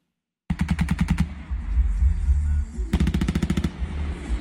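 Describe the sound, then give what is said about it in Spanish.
Rapid bursts of machine gun fire crack out in quick succession, a sustained volley near the start and another burst near the end, loud and echoing over a low rumbling background. Intense shootouts during operations searching for an alleged drug trafficker in Cambita, San Cristóbal, filmed by residents. “En audiovisuales caseros realizados por residentes en Cambita quedaron las evidencias de los intensos tiroteos que se registraron en el municipio turístico de San Cristóbal.”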